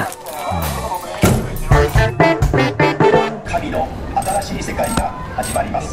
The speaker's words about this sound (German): wo Geräusche von Junkfood-Automaten und das Rascheln von Chipspackungen in die Komposition aufgenommen werden. Die Musik spielt sich quasi um die Geräusche herum.